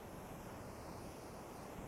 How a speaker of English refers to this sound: I hope you can hear the beautiful ocean in the background.